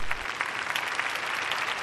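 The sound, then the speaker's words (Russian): Steady applause from a group, a dense crackle of many hands clapping at once, sustained and even in loudness for the whole stretch with no talking over it. “Под аплодисменты я объявляю еще, еще одна пара, которая плохо катается в начале сезона и в принципе идет по какой-то такой наклонной э, траектории.”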